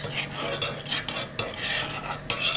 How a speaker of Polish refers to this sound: rozmieszam łyżeczką aż do uzyskania jednolitej konsystencji.